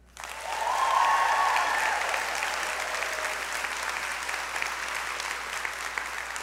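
The women of the audience at City Hope break into sustained applause for the men, many hands clapping in a dense, steady wash that starts abruptly and holds at a fairly even level with a few scattered cheers.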